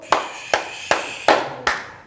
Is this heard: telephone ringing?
no